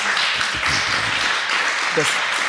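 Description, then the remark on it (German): A small audience in Munich, including three Bayern fans, claps in a steady, continuous patter that lasts the whole stretch, with faint voices murmuring underneath. “Wir haben hier drei versprengte Bayern-Fans im Publikum, du hörst das.”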